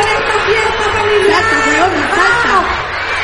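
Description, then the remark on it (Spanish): A large audience at a stage show shouts together in a dense, continuous roar of many overlapping voices, loud, chanting the protest slogan "el que no salta es facho" ("whoever doesn't jump is a fascist"). “El público comienza a gritar algo”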